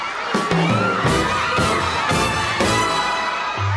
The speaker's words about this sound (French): À leur sortie de l'avion, les … sont acclamés par la foule.